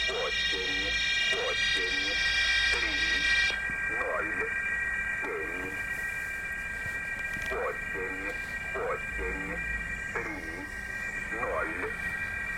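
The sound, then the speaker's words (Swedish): A radio telegram transmission in which a voice reads out number groups in short, evenly spaced bursts, each group sent twice, over steady whining carrier tones and a constant hiss of static. Signal 854, telegram number 590, with 42 telegram groups. “Och här hör man ju att här sänder de varje grupp två gånger så det tar ju väldigt lång tid att sända ett, ett sånt här meddelande som kanske kunde vara någonstans mellan 60 och 130 grupper.”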